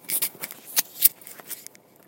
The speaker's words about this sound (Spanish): Eh, si habéis oído un ruidito, disculpadme, es que el micrófono se me ha subido hasta el cuello y me lo baja un poco.